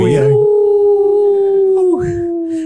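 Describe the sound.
A single long, steady wolf howl holds one pitch for nearly two seconds, then slides sharply downward and trails off, loud.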